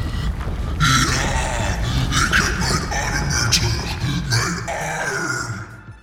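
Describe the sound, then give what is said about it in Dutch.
A man-eating monster's horrible roaring scream: a loud, rasping, guttural bellow that growls and surges continuously for about six seconds, harsh and rough throughout before trailing off at the end. “Met een afgrijzelijke stem, waarvan de muren dreunden, schreeuwde de menseneter.”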